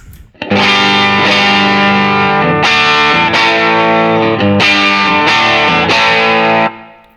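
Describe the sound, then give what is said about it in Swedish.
An electric guitar through an overdrive pedal with the drive set to 12 plays a series of loud, sustained distorted chords, changing every second or so, thick and saturated, with no talking, then ringing out at the end. “Och det med driven på 12.”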